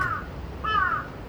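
Two harsh crow caws ring out in the evening in Sumida Ward, one brief at the start and a longer one midway, over a steady low rumble of passing car traffic; no one speaks.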